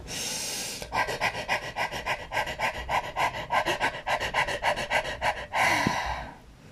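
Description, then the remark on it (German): A person demonstrates a panting breathing technique with a long run of quick, short, breathy puffs through pursed lips in a steady rhythm, fairly loud, bracketed by a longer exhale at each end. “Das wäre das Hecheln holst du Luft, machst deinen Mund ganz spitz und pustest ganz viele kleine Kerzen aus.”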